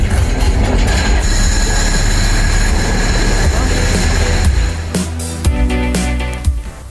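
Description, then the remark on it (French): A heritage railway train rolls past in the Anjou countryside of France, a loud steady rumble of wheels with a thin metallic whine over it, giving way near the end to a few sharp clanks and knocks. “Dans ce décor du 19e siècle, très rapidement, le bruit de la mécanique nous attire.”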